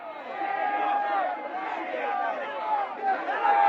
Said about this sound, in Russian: Я вышла на улицу, и тут уже толпа людей, которые закинули головы и начали выпускать накопленное. Ор стоит оглушительный, а народу становится только больше.